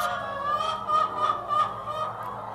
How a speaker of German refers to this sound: Ich zähle schnell, höre schnell wieder auf und tippe auf ein paar hundert Hennen allein in meinem Sichtfeld.